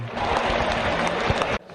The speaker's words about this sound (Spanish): ahí ha dejado una pintura, ¿eh? un recorte muy torero que inmediatamente hace que el público se ponga de pie le tribute una ovación.